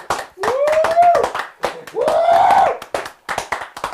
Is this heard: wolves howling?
no